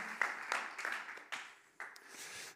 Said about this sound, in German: Hey, gib mal unseren Lobpreis einen fetten Applaus. So gut, mit euch Gott anzubeten.